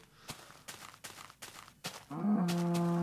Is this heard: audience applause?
no